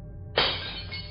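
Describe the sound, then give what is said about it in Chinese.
A single sudden crash of breaking glass bursts in over a low hum, followed by a bright, hissing rattle of shards that fades slowly over the next second. Glass is smashed at the Statler Hotel in New York, USA, at 2 a.m. on 28 November 1953. “一九五三年十一月二十八日，美国纽约的斯塔特勒酒店，凌晨两点，正在值班的酒店经理阿曼德·帕斯托雷隐约听到玻璃被撞碎的声音”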